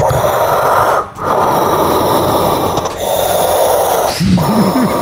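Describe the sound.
A voice imitates Darth Vader's mechanical respirator breathing: loud, rasping hisses in long steady cycles with brief pauses between them, ending with a low hum under the last breath.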